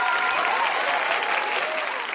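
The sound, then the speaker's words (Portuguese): An audience applauds a Brazilian guest steadily, a dense, even wash of many hands clapping at a constant loudness, with a few cheering voices mixed into the noise. “Vamos aplaudir muito esse brasileiro exemplar.”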